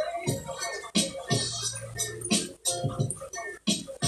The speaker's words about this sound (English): Y'all hear that rain in the background? That this shit raining like a motherfucker up here. It's crazy.